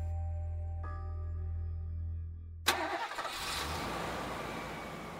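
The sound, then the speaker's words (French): A brand-new pick-up truck's engine starts: a low, steady hum, then a sudden loud catch as the motor fires and settles into a rough, rumbling idle. No voices are heard. “les emmener jusqu'à son exploitation, dans un pick-up flambant neuf.”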